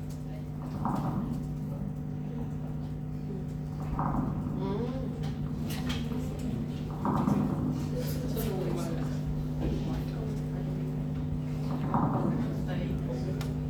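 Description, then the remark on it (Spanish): In a sound demonstration, dry, crackly rustling like popcorn or a lock of hair rubbed between fingers comes in four short bursts a few seconds apart, with scattered sharp clicks over a steady low hum. “Son ruidos secos, son ruidos secos y suena como un popcorn.”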